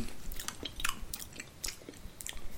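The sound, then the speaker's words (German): Wet, noisy chewing with repeated lip smacks and small crunches, steady for a few seconds, with no talking. “Schmatzen.”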